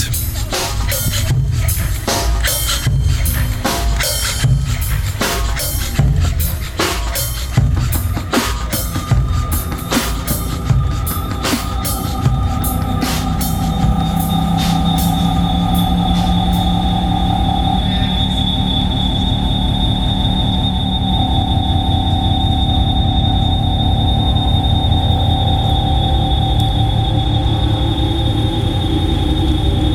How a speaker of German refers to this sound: Motorengeräusche gehören auch zur Performance dazu. Also das Quietschen der Servomotoren ist durchaus willkommen. Es groovt mit.